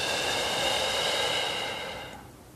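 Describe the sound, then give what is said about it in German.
A long, deep breath out during a guided group meditation, a steady airy rush lasting about two seconds before tapering off, with a soft sustained tonal hum underneath and no talking. “Und wieder aus.”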